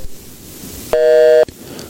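A single steady electronic telephone busy tone, heard as a phone call drops, sounds loudly for about half a second after a quiet stretch, then cuts off abruptly.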